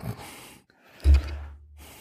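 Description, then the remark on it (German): A tired person's breathy, drawn-out yawn: a soft inhale, a brief pause, then a louder low-voiced exhale that trails off. No talking. “der hat ja in den letzten Random Movie Folgen gern mal gegähnt nebenbei”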